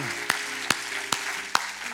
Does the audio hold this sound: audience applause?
yes